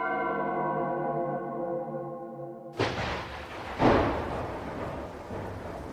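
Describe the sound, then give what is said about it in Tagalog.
A steady tonal hum cuts off abruptly and sudden heavy rain bursts in around 4 in the afternoon, a loud, dense hiss, with deep thunder booms rolling through the downpour. “Pagsapit ng alas 4 ng hapon, naghahanda na sana sila para umalis nang biglang umula ng malakas.”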